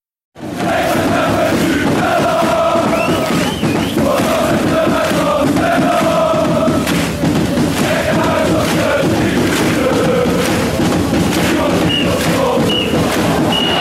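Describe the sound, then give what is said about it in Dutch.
A large football stadium crowd roars steadily and loudly for the whole stretch, chanting and cheering at the final whistle of the match. A few short, high whistle tones cut through the din. “Het laatste fluitsignaal.”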